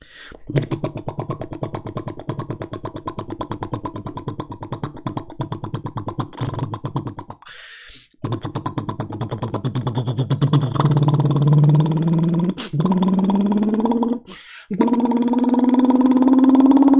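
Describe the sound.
A man's voice imitates a motorcycle engine, a Komar or a Harley, starting with a steady sputtering idle, then revving up with rising pitch in several bursts separated by brief pauses, loud.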